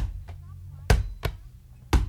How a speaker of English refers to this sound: Someone's bouncing a ball.